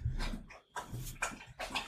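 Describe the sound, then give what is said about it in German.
A dog with its face in its bowl drinks water, making a few wet, splashy slurps in quick irregular bursts with short pauses between them. No one speaks. “Ich habe gesehen, wie mein Mikropegel immer pop, pop, pop, pop, pop hochgeschlagen ist, der Hund mit dem Gesicht im Napf hängt und säuft.”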